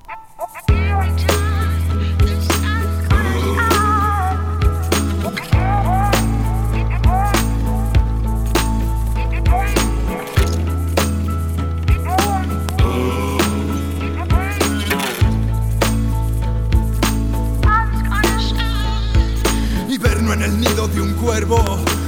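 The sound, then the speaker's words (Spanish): A rap track with protest lyrics by a rapper from Logroño, Spain, plays loudly, a voice rapping in Spanish over heavy bass notes that shift roughly every five seconds, with crisp clicking percussion ticking steadily through the beat. “ahora os voy a, poner un grupo de Logroño, en este caso es un, un rapero con letras reivindicativas que es afín a la, a la cuesta, lo conozco hace años y me parece que tiene unas letras increíbles.”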